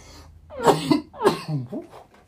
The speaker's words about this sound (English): shit got me coughing over here.